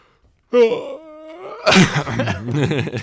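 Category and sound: human body sound, person yawning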